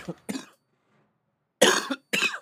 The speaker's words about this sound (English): I've been coughing for two weeks. I can't stop.